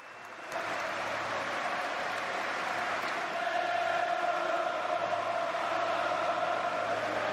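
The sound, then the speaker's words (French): The Liverpool stadium crowd stands and breaks into sustained applause in the seventh minute of the match against Manchester United, in honour of Ronaldo, a dense, steady roar of clapping and cheering that swells after the first half-second and holds loud throughout, with a faint sung or chanted tone rising within it. “À la septième minute de jeu, comme le numéro de maillot de Ronaldo, le stade de Liverpool s'est levé et a applaudi.”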